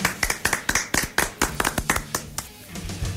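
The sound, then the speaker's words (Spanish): A small group claps together in quick, uneven bursts of applause for empanadas, fairly loud, thinning out toward the end with faint voices underneath. “Hay aplausos para las empanadas.”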